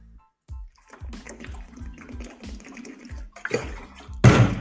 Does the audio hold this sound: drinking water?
yes